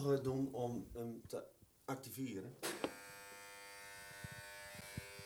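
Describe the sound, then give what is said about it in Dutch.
A person talks briefly, then, after a lever is pushed up to switch on the power supply, a steady electrical hum kicks in and keeps droning evenly, like a transformer buzzing, fairly loud. “Eh, ik ben niet zo technisch, dus wat je nou hoort, ik zou het niet weten. Iets van een transformator of zo.”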